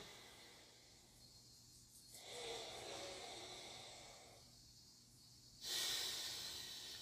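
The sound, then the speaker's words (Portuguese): Slow, quiet alternate nostril breathing (Nadi Shodhana): one nostril is closed and breath is drawn in and released through the other in turn, a soft airy rush rising and fading in long cycles, ending with a sharper, louder exhale. No talking. “O Nadi Shodana, que seria a, a respiração alternada, você tampa uma narina.”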